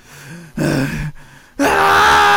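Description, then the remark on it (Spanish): A person vocally imitates a man's desperate scream: a short strained cry, a brief pause, then a longer, louder anguished yell held to the end, with no other voices. “Esta vez simplemente son gritos quizás como desesperación, eh, es el hombre, el mismo hombre delante está gritando.”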